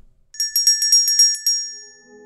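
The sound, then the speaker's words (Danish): The parliament meeting bell at Christiansborg in Denmark, rung to call a meeting in the Folketing chamber, rings in a quick, even burst of about eight bright metallic strikes, loud, then its ring fades away, leaving only a faint low hum. “hver gang der indkaldes til møde i Folketingssalen på Christiansborg, ringes der med klokken”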